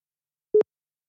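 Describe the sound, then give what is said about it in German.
A single short electronic telephone tone, a steady mid-pitched beep lasting about a tenth of a second, sounding alone against silence with no voices. “Und schon klingelt so.”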